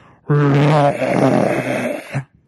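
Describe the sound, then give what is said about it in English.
A single loud, deep roar from a lion on a big concrete pad rumbles out for about two seconds, shaking the concrete, starting with a strong tonal bellow and breaking into a rougher, gravelly growl before cutting off abruptly. “That was doesn't even do it justice, but this insane roar, and it rumbled the concrete.”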